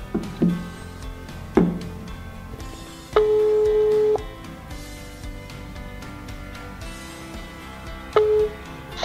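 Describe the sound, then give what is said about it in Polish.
A steady telephone ringback tone sounds once for about a second, then again briefly near the end, with faint background noise between, after a phone number has been dialed to call someone; no one speaks. “Wybrałem num... O, dobra, jest pierwszy sygnał.”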